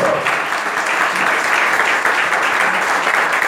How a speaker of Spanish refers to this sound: Déselo al Señor, por favor, ese aplauso.